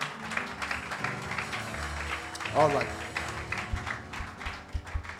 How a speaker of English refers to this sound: Let's put our hands together.